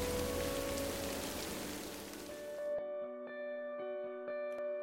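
A dense, steady hiss of falling rain fills the first half, then cuts off abruptly and gives way to sustained, ringing musical tones with soft plucked notes.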